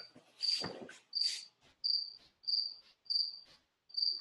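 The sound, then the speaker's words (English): Crickets chirping in a steady, evenly spaced rhythm, about seven bright high-pitched trills over a few seconds, with a brief rustle at the start and no voices. “We'll just call this one crickets.”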